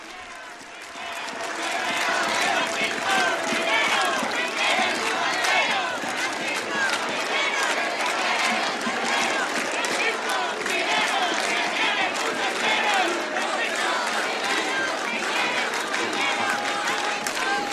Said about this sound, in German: Und vergesst nicht, weiter die Wellen zu reiten, sagt Papst Franziskus noch zu den jubelnden Jugendlichen hier in Lissabon.